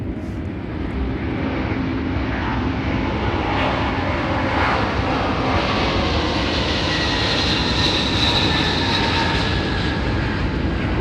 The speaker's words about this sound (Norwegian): For plutselig så kom det 30 store transportfly av typen AN-12 Cub inn fra Barentshavet. De hadde kommet fra syd, fløy ut over Barentshavet, snudd, og så kom de inn over Petrengadalen.